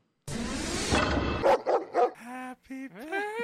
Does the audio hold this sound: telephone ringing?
no